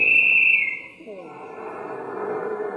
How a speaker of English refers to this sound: Trailing with only minutes left on the big clock. And then the final whistle blew.